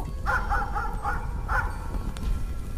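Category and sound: animal, dog barking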